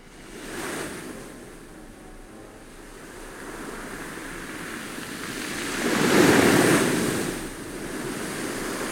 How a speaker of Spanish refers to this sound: Abajo rompían las olas, embarcadero de luz donde encalló el agua de toda la noche.